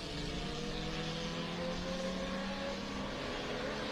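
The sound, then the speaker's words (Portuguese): A stock car engine roars steadily at full throttle on a race track during a race, its pitch climbing slightly as it accelerates, with a dense, continuous mechanical drone and no voices. “Segurou bonito ali o Conrad, vem trazendo o carro”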